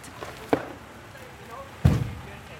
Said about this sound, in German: Es ist kaum zu hören, wie der tonnenschwere Brocken auf das Bett aus Sand und Reifen prallt.